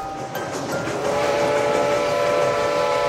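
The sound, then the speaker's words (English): A miniature steam train carrying Walt Disney, with Mickey Mouse at the wheel, draws near, its whistle sounding a steady, sustained tone over a continuous rumble and hiss. The sound is fairly loud and constant, with no talking. “Oh, here comes Mr. Walt Disney now on the miniature steam train.”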